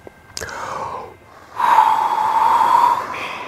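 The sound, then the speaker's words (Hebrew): Voices imitate toys blowing forceful puffs to make a red kite fly: a short breathy burst, then a long, strong sustained "foo" exhale of airy noise lasting over a second, fading at the end. “הצעצועים עשו כולם פו חזק, והעפיפון האדום שאף כעת ליד מדפי הספרים התקרב לאט לאט אל התמונה של הרכבת המהירה.”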